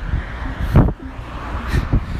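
Street traffic rumbles steadily, with two brief louder swells of car noise about a second apart rising over a low engine drone as two cars face off against each other on the street; no one speaks.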